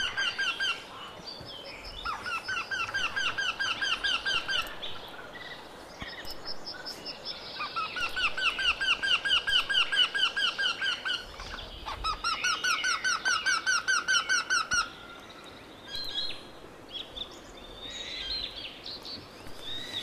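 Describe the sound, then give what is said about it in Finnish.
Two woodpeckers in southern Finland call against each other, trading rapid, repeated calls, their sharp chattering series overlapping and alternating in long bursts against a quiet outdoor background, clear, with no one speaking. “Tässä, kilp, kaksi, tässä on kaksi. Huutaa kilpaa.”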